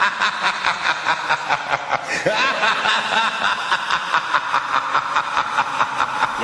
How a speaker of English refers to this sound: Yes, that is the sound of Vincent Price and that famous evil laugh.